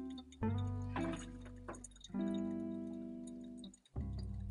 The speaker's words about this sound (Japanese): コーヒーを入れてますいい音